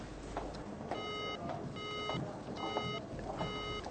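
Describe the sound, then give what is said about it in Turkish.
A telephone's disconnected beeping tone repeats four times in steady, evenly spaced bursts, moderately loud over a faint hiss of background noise, with no voices. “Fakat tam o sırada telefon bağlantısı kesilir.”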